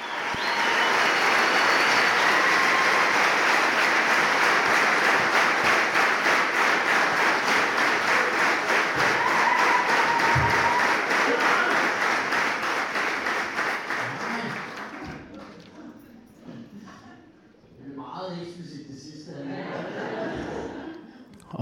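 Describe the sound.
A packed, sold-out comedy audience at Magasinet in Odense, Denmark, applauds loudly as a comedian walks on, a dense, steady roar of clapping with some cheering that holds for about fifteen seconds, then fades as a single voice starts talking.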